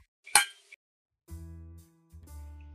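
A single bright clink of glasses in a toast rings out, followed by two stretches of low, steady humming tones with no one speaking.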